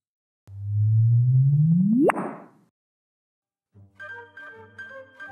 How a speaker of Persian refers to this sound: امواج گرانشی هم تا به ما برسن اونقدر ملو شدن که با شبیه سازی طول موجهاشون اونها رو میشه به صداهایی تبدیل کرد که توسط گوش انسان قابل شنیدنه پس بذارین ما این قسمت رو با صدای به هم پیوستن دو ابر سیاه چاله در یک و سه دهم میلیارد سال پیش به پایان برسونیم